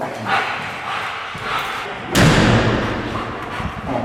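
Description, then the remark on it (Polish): A door leading from an airlock room into a scent-identification room is handled with some soft shuffling noise, then swings shut with a single loud thud midway through, followed by a lingering rumble. “Tak, tak, biegły ekspert dodaje mi sygnał dźwiękowy z dzwonkiem i ja wchodzę przez te drzwi na, do pomieszczenia rozpoznawania.”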